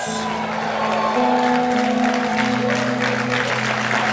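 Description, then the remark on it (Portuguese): Steady audience applause with dense, continuous clapping at a moderate level, mixed with a low sustained hum or organ-like tone underneath, lasting a few seconds. “Está tímido demais essas palmas.”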